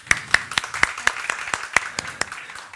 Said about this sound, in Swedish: En applåd.